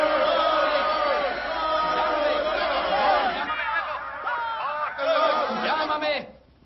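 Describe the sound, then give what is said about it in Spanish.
Busy office crowd chatter, a dense babble of many overlapping voices with scattered laughter and shouts, loud, heard as an office door is opened, cutting off abruptly at the end. “Toda la empresa se está volviendo loca. Espere, abriré la puerta de mi despacho.”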